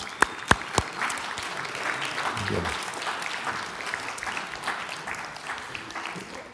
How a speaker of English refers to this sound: Would you please stand so we can at least give you a momentary recognition and some applause?